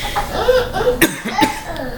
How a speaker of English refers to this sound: I, I'm sorry for coughing in your ears. Um, it's because I'm trying not to get excited and lose some uh, air in my lungs because I'm coming down with something.